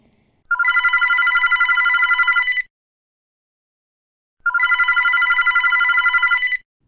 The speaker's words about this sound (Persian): صدای زنگ تلفن بلند شد.